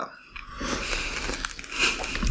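Close-up crunching and chewing of peanuts, a steady run of crisp, crackly bites and grinding lasting a couple of seconds, with no talking.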